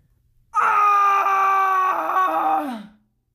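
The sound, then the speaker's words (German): From deeper inside a cave system, a man lets out a single long, loud, bloodcurdling scream that holds steady for over two seconds, then sinks in pitch and fades into a short echoing tail before silence. “hört ihr einen lauten Schrei eines Mannes, der sich weiter im Inneren des Höhlensystems befinden muss.”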